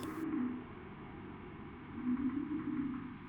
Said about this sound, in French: et vous allez écouter euh, Frigo Chanteur.